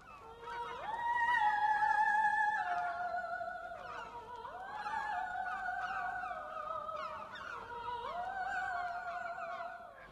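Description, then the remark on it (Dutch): Strong wind howls in sustained, eerie tones that slide and step between pitches, rising and falling in three long waves, loud with no voices. “Het waait hier verschrikkelijk.”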